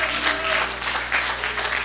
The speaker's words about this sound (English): Come on, can we add our voice to that? Come on, can we clap our hands and lift up our voice?